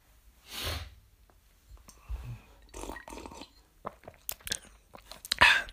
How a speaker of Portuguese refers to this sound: Um, eu vou beber água porque vocês vão ouvir agora o SMR. É SMR porque. Hum, microfone.